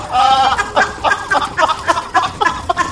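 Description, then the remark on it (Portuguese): A goat bleats in a series of wavering, nasal cries, several in quick succession and fairly loud, with no one talking over them. “Eu, eu vou entrar na frente pra não tentar dar uma facada nessa cabra.”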